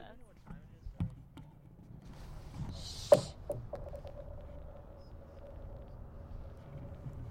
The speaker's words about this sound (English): The the rocks here make a crazy sound if you throw them, and I'm gonna put the recorder down by the ice so you guys can all hear